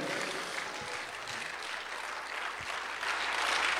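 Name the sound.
audience clapping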